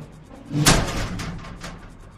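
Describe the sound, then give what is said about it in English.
An inner office door bangs open with a sudden heavy slam, followed by a few light, clinking rattles of glasses on the desk that quickly settle. Fairly loud, with no voices. “A second later, the inner office door slammed open, rattling glasses on the desk.”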